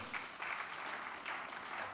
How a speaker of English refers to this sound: Once again, give God a clap offering.